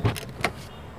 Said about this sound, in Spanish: Tú ves, ya tú le estás dando para adelante el carro.